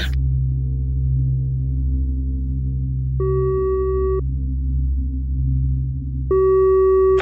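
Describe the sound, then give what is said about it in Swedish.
A phone's ringback tone on an emergency call to 112 sounds twice, each steady electronic beep lasting about a second with a pause of a couple of seconds between, over a constant low droning hum. “Så nu ringer jag 112 och har sån fantastisk tur så att de svarar direkt.”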